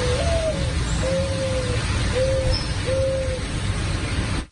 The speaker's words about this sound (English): This dove had come here to watch over me. So we filmed her singing her song